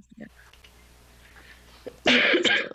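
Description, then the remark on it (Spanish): A person's harsh, barking cough bursts out loudly after a brief quiet stretch, with a small throaty sound near the start. “Ay, perdónenme mi tose de perro que me cargo.”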